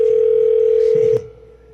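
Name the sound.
telephone dial tone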